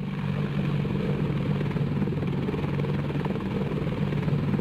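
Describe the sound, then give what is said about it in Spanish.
A helicopter carrying troops toward Failaka Island in Kuwait drones steadily, its low rotor thrum and engine whine filling the whole stretch at a constant, loud level with no voices. “Se subieron a los helicópteros.”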